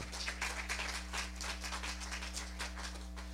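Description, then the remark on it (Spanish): A church audience claps for the Lord, a dense, continuous patter of many hands at moderate volume, with a low steady hum running underneath throughout. “Dale un aplauso grande y fuerte al Señor.”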